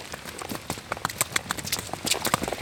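Donkey hooves clip-clop along at a brisk, uneven walking rhythm, a steady run of sharp knocks growing slightly louder toward the end, with no voices, as the donkey travels back to Friesland.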